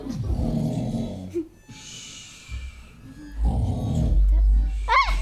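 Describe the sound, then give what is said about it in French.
Gentle snoring, likely a person imitating an old man taking a nap: low rumbling snorts alternate with soft breathy inhales in a slow rhythm, moderately loud, ending in a brief high squeaky whistle. “And he was gently snoring.”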